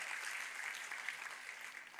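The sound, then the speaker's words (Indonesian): A church audience claps for God in a steady, dense wash of applause that holds an even level for the full two seconds, with no voices rising above it. “Kita kasih tepuk tangan yang paling meriah buat Tuhan kita.”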